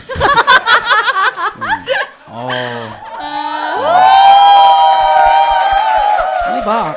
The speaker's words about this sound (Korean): 함성 소리가 2천 명의 함성 소리잖아. 대박.